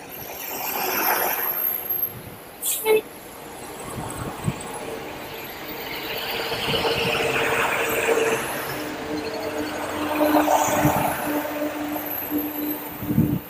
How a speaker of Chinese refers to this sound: 不确定那等红绿灯的时候你们能不能听到啊？嗯。哎，到处都是车。公交、私家车、骑自行车、电动车，哎呦，在里边穿行。